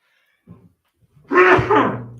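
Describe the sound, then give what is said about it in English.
A single loud sneeze bursts out, preceded by a brief, soft intake of breath, then trails off quickly into silence. “Bless you.”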